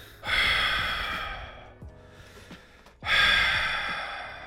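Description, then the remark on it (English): Two long, loud breaths hiss into an over-the-ear headset microphone, a voice imitating the heavy mouth breathing of a gamer absorbed in a game, with a softer rustle between them and no talking. “you're both wearing over the ear headsets and you're really into a game you Breathe both get that heavily. mouth breathing, like.”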